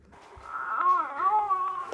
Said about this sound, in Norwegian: Via babycallen hører Katrine Hårberg at … er ferdig med sin formiddagsdupp